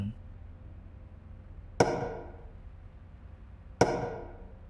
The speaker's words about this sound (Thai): ผมได้ยินอีกหนึ่งเสียงดังแทรกขึ้นมา มันเป็นเสียงเคาะแบบเดิม เสียงครั้งนี้ ดังฟังชัดกว่าครั้งไหนๆและมันมาจากภายในตู้ซิงล้างจานที่ผมเคยเข้าไปซ่อนตัว